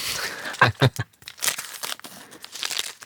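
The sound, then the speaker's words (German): A Snickers candy bar wrapper is torn open, with sharp crinkling and a couple of loud ripping bursts followed by continued rustling of the plastic. “Ich mache gerade meinen Snickers auf.”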